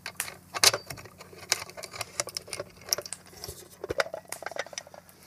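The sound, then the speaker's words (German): Someone opens a small box close to the microphone: a run of sharp clicks, taps and papery rustles, irregular and crisp, with no talking. “so, dann machen wir das doch live hier mal auf, oder?”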